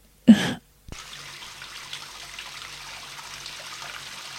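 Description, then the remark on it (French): Water running from taps in a cellar, all opened at once: a short loud gush, a sharp click, then a steady, even hiss of flowing water that continues to the end. No one speaks. “Il ferme les robinets.”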